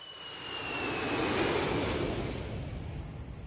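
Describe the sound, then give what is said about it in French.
An airplane flying to Nice in April 1988 roars past, its broad engine rumble and high whine swelling to a peak midway, then slowly easing off. No voices, just the steady wash of the aircraft. “Un jour d'avril 1988, je prends l'avion pour Nice où une Rolls m'attend.”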